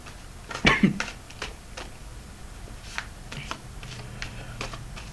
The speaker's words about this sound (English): Alright, now we shuffle the cards again.